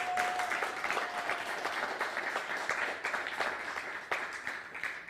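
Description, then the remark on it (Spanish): Sustained applause from an audience, dense overlapping claps filling the full length at a steady, moderately loud level, with a faint tone briefly audible near the start. “Un nuevo aplauso nuevamente, por favor.”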